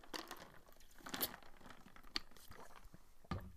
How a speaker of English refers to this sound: I'm just going to take a quick sip to uh, refresh my voice.